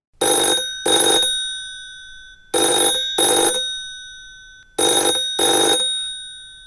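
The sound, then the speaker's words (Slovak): An old-fashioned telephone bell rings loudly in three double bursts, each pair of harsh metallic trills separated by short pauses, with no voices. “A pre zaujímavosť, v roku 1952 bolo do chaty Magúrka zavedené aj telefonické spojenie.”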